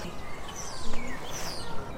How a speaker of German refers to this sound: Ja, ein bisschen lauschen. Man hat dieses Vogelgezwitscher. Natürlich auch mal ein Auto.